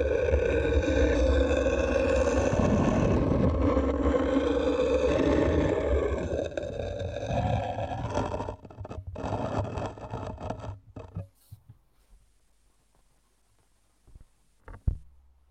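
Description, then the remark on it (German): Two slate plates are rubbed against each other, recorded with a contact microphone: a dense, resonant rasping scrape that swells and churns, then breaks into scattered scratches and clicks before fading to near silence with one last knock. “also zwei Schieferplatten.”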